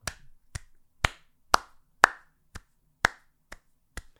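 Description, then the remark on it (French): A single person claps nine times at a steady, unhurried pace, roughly two claps per second, each a sharp smack with no voices. “Euh, ceux qui l'écoutent en audio, euh, je me crosse pas, j'applaudis.”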